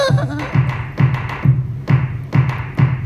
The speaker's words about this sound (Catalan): és aquest picar del cagatió que per mi comença una mica tot, que és, que, que és com una mica el meu gest arrel o el meu gest eh, que, que m'acompanya d'aquesta manera tan, tan forta.